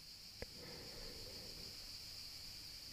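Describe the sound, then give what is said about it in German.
A steady, high-pitched insect trill of crickets drones on without a break, soft, with one brief click near the start and no voices. “Die Hintergrundgeräusche, die du jetzt hören kannst, das Zirpen der Grillen”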